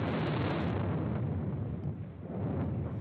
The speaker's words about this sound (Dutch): Wat je zo net gehoord hebt, waren de aardplaten die over elkaar beginnen schuiven. En die wij als mens, die in de nabijheid op het aardoppervlak staan, kunnen voelen en horen.